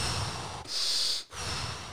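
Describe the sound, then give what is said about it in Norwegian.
Forceful, rapid breaths into the mic, a loud airy inhale and exhale cycling with barely any pause, exaggerated and deliberate, no talking: consistent in- and out-breaths without pause as part of a breathing technique, done 30 times. “prosessen i den pusteteknikken hans er jo Jeg lurer på om det er 30 uh, inn- og uthaleringer hvor du kjører konsekvente inn- og utblåsninger uten pause. Det er sånn nesten en overdreven pusting.”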